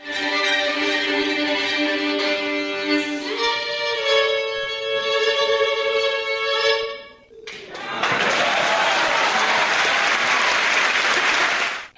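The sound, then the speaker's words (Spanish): A sustained orchestral chord rings out and cuts off, then the audience at the Teatro Juárez breaks into loud, dense applause for Gustavo Dudamel and the Los Angeles Philharmonic at the end of the night's concert, holding steady to the end, with no talking. “Recibió aplausos, finalizó así la noche.”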